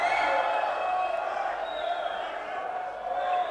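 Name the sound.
audience shouting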